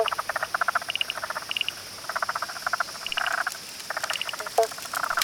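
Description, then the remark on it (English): A chorus of frogs by a creek croaks in the evening in rapid, pulsing bursts that overlap and repeat, steady, with faint insect chirring in the background and no voices. “There is a creek nearby. Can you hear the frogs? It's like an evening chorus.”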